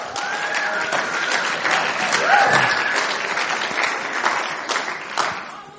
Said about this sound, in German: Ähm, wir geben euch einen ganz starken Applaus. Die beiden werden uns heute Abend dienen.